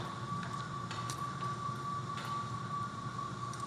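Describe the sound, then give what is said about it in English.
A loud air conditioner runs steadily, a continuous low mechanical rumble topped by a thin, sustained whine that holds an even level throughout, with no voices. “Um, that's not a UFO, that is uh, the air conditioner.”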